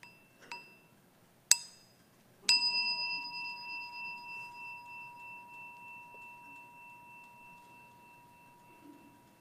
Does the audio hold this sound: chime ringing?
yes